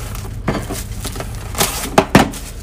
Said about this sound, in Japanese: さあということで言うてたらもう鮭のオイル包み焼きが出来上がりましたんで、えー、私はこれを今からラップで包んで